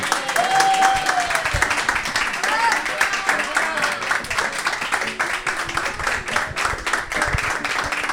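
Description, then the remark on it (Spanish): Steady audience applause in Santa Coloma for a guest whose photographs were shown, a dense, continuous patter of many hands clapping at a fairly loud level, with a few faint voices and whistles mixed in. “El público quiere que te quiere aplaudir, el público, te quiere aplaudir.”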